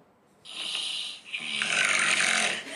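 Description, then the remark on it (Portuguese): A person imitates their own loud, harsh rasping snore: two long gritty inhale-like bursts, the second stronger and sustained, with no talking. “Parece que você tá arrastando uma enxada no asfalto, tá ligado?”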